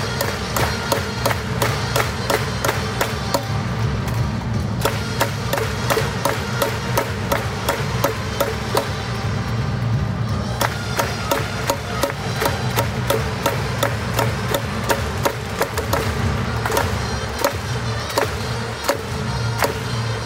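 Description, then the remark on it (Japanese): Seibu Lions baseball fans at MetLife Dome rhythmically bang plastic megaphones and wave flags, sharp repeated clacks keeping a steady beat over the team's pre-recorded attack chance theme with brass and drums, sustained loud throughout. “メットライフドームの場合、西武ライオンズの選手が登場する際の曲ですとか、得点の可能性があるチャンステーマは事前に収録したものを流し、それに合わせてファンがメガホンを叩いたりフラッグを振ったりという応援でした”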